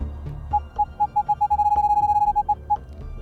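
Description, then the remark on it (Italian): A racing game's deceleration warning tone: a mid-pitched electronic beep that repeats, quickens into a rapid, nearly continuous stream, then slows again, loud over a low rumbling engine hum. “Ok, questo è l'avviso di decelerata, sentite.”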